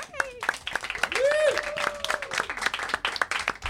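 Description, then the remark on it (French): A live audience applauds with dense, steady clapping, while a voice whoops and cheers over it. Loud throughout, the applause continues for several seconds. “Merci au public qui a grandi au fil de la semaine. Il y a vraiment une belle gang. Applaudissez-vous.”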